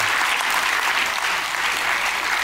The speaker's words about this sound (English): Come on, put your hands together and give the Lord a hand clap, a shout, and a hallelujah.